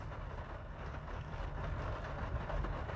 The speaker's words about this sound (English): Can you hear the rain, my friends? I don't know if you can hear it, but it's nice. I'm sitting in a vehicle recording this and reading the word to you, and I hear the rain. It's calming.